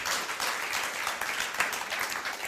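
Steady audience applause, a dense wash of many hands clapping at an even level for a couple of seconds with no voices over it.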